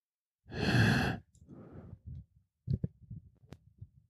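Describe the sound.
A loud, heavy exhaled breath followed by low, drawn-out moaning and a few soft clicks, like an obscene phone call. No words are spoken.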